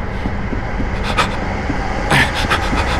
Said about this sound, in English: The train is still moving forward.